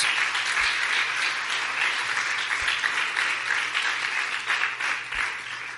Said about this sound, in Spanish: ¿Cuántos pueden decir amén a ello también? Denle un buen aplauso a mi Jesús.